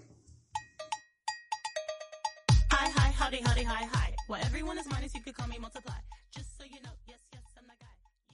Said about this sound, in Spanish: Vamos a ir con una canción.